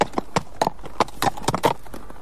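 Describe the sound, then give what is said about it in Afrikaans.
Horse hooves clip-clop in a steady, even rhythm as a horse is ridden past, a quick series of sharp knocks, fairly loud, with no voices over them. “En toe, op 'n dag toe dit weer gebeur, ry daar 'n prins verby op sy perd.”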